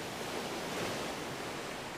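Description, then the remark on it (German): Steady, broad wash of ocean surf rolling onto a shore, a soft continuous hiss with a gentle swell in the middle, heard alone without any voices. “Beobachte, die Wellen, wie sie kommen und wieder gehen.”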